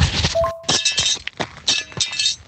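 Metal shell fragments clink and scrape repeatedly as they're cleared away from the path of a car near Kharkiv, Ukraine, a busy run of bright, jangling clatters with a few short ringing tones, fairly loud and irregular.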